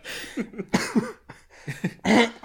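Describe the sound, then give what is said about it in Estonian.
A person with bronchitis coughs repeatedly, a string of harsh, uneven bursts with short gaps, the last ones loudest, with no talking in between. “siis tuleb põlv värisema ja, ja köha tuleb peale.”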